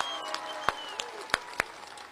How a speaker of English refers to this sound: Come on, people, clap. Clap.